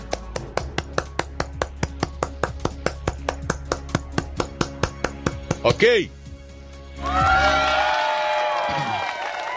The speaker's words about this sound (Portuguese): Tem aplausos aí para o deputado Marcel Van Hatten? Por favor. Aplausos para o Marcel Van Hatten. Bom, enquanto você acha aí, eu vou batendo palma aqui.